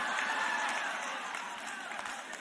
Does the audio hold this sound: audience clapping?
yes